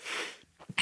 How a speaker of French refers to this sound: Pardonnez-moi, je suis soumis à la climatisation. Oui, mais ça, c'est un signe. C'est-à-dire On a parlé de la mort, vous éternuez, je suis sûr qu'il y a un signe.